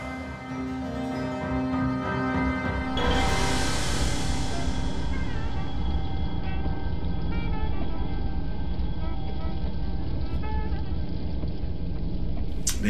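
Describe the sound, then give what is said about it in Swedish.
A moving car rumbles steadily and loudly, a dense, rhythmic, low thumping drone that swells in after a few seconds of quieter tones and keeps going without a break. “det är ett rytmiskt liksom, dunkande ljud som väcker dig tror jag, eh,”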